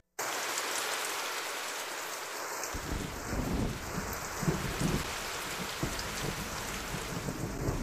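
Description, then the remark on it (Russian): Steady rain hisses across a surface, and after a few seconds a low, distant rumble of thunder rolls in underneath and keeps grumbling. No one speaks. “А, мне кажется, в Тайбэе намного больше дождливых дней, чем солнечных.”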